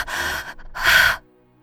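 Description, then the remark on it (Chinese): Two loud, breathy gasps for air, one after another with a short pause between, the second harsher and more strained, like someone panting and struggling to catch their breath. No speech. “竟然接不上气来。倒在了沈轩的臂弯之中，细细的喘息着。”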